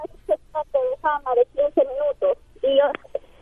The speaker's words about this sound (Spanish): Primero cómprate un celular que se oiga bien. No, es mi radio que no se escucha bien.